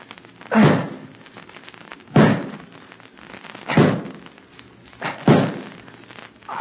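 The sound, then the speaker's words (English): Four heavy wooden chops from a hatchet biting into a tree trunk while chopping timber, spaced about 1.5 seconds apart in a steady rhythm, each a loud thunk with a short woody decay. “Well, now I'll show you some plain and fancy timber chopping.”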